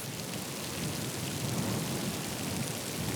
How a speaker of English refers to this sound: In this January 1993, the countryside is grey and cold under the relentless drizzle in Gloucestershire. During this season, the garden at Highgrove House is but a shadow of its former self.